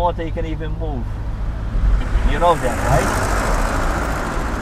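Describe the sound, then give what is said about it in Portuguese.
Steady road traffic rumbles along the main street on the island of Gozo, heard during a taxi ride, with a vehicle swelling louder and hissing past in the second half while the taxi driver talks over the noise. “Estamos aqui na rua principal e o trânsito está bom.”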